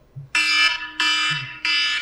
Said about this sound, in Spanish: Ah, pero se los voy a poner para que vean el tono alarma que me reviento yo. Eh, entonces, para que vean, vean este tono.